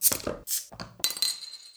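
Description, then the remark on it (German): Glasses clink together in a toast, a few bright ringing taps followed by a lingering glassy shimmer that fades out. “erstmal ein Schlückchen trinken, mhm. aber wir kennen es ja und es ist ein leckeres Pilz auf jeden Fall. Prost. Zum Wohl.”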